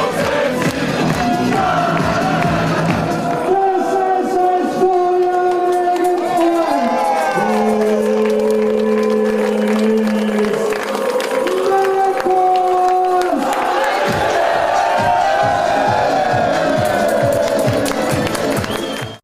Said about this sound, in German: Ähm, ja, das war eine riesige Feier, weil wir, ja, weil wir aufgestiegen sind.